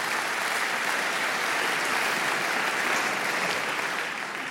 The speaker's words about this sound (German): Applaus